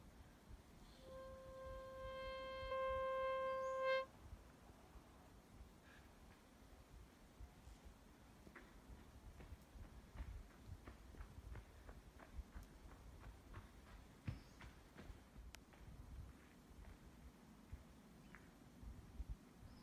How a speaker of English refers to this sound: Oh, people on horses.